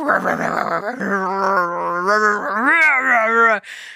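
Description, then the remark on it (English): A voice imitates dogs growling in the middle of a round of rough play in a front room, a loud run of snarling, rising and falling vocal growls lasting about four seconds, ending in a brief breathy hiss. “Um, and so you just hear we they were in the middle of a round and you just hear”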